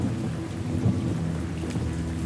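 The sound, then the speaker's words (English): Heavy rain pours steadily with a low, continuous rumble of thunder underneath, a dense wash of noise with no voices. “Turning back, I swung myself down into my wagon, shutting the top as the rain began to soak into my carpet.”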